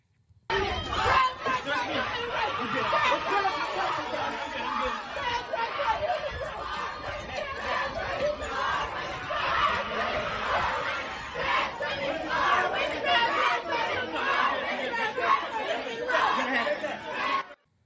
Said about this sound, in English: terrified swimming champion Riley Gaines being ambushed by screaming trans activists